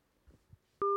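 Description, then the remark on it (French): A modern telephone hang-up tone: two soft low knocks, then a click and a loud, steady electronic beep held for about a fifth of a second before cutting off. “C'est la tonalité moderne.”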